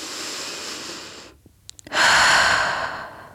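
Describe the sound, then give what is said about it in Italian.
A woman breathing slowly and audibly, one long airy breath, a short near-silent pause with a couple of faint clicks, then a louder, rushing breath that gradually fades. No talking. “Più la guardo e più mi sembra di sentirla respirare.”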